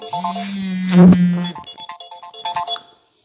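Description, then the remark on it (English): A phone alarm plays an electronic melody: a sustained low buzzing tone with bright chiming notes, then a quick run of short, evenly spaced beeps before cutting off abruptly. “Sorry, I had a alarm that went off. I forgot about.”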